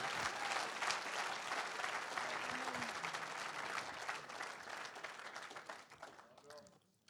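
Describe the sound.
A church audience applauds a woman called up to speak, steadily for several seconds, a dense wash of clapping that holds level and then tapers off at the end, with a brief murmur of voices underneath.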